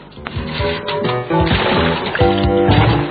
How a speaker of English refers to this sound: The first thing we have to do is get your sponge good and wet.